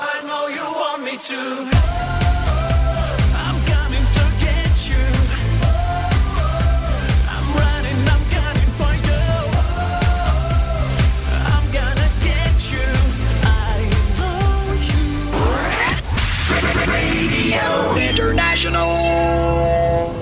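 A loud, full-band pop song plays with a steady driving beat, bass and sung vocals, a brief swell near the end before the groove continues.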